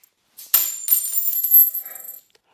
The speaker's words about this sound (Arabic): هيا سمعت الحس متاع الفلوس يا طباخ اي اي سيدنا القاضي سمعت